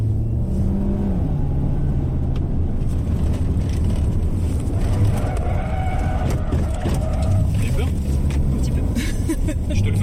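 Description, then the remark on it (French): A police car driving on a training track drones steadily throughout at a loud, even level, its low engine rumble occasionally rising as it revs, with indistinct voices mixed into the noise. “venez, c'est sur la piste, sur le terrain qu'il faut le suivre, et bien sûr à bord d'un véhicule.”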